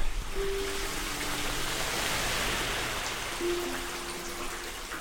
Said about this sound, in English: This is the sound of a storm drain, an honest to goodness river running right under my feet. And above me are the first and smallest tributaries in this unlikely ecosystem gutters.